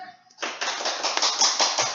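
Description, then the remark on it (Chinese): Audience applause at a live-streamed talk for HR professionals, welcoming the guest speaker, starts abruptly after a brief quiet moment, a dense, crackling wash of many hands clapping at once that stays fairly steady and loud to the end. “请大家掌声。”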